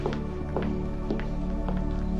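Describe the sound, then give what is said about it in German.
Quick, evenly spaced footsteps of Logan running up late to a wedding, about five thumping strides over a steady tonal hum in the background, moderately loud. “Aber das ist natürlich nur ein Finden, weil wo alle die Hochzeit schon abbrechen wollen, kommt dann der Logan doch noch zu rennen.”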